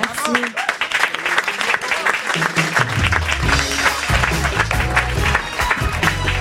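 An audience claps and cheers steadily, a dense wash of applause with scattered whoops, while a low musical bass line starts up underneath partway through.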